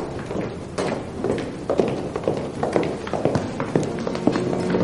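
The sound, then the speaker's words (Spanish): Quick, steady footsteps of two people, one a nun, hurrying through a convent cloister across a hard stone floor, the hollow taps echoing slightly in a reverberant space with no talking. “Una vez dentro, camina con la hermana María a paso acelerado por el claustro del convento.”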